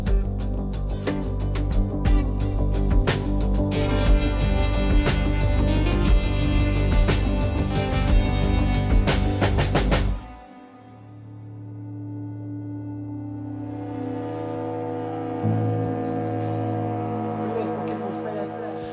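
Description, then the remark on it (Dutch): A drone attack over Kyiv in the morning: a loud, dense roar peppered with sharp cracks and bangs, then it cuts to a steady low droning hum with higher tones swelling in. “we horen hier het geluid van, eh, van een droneaanval.”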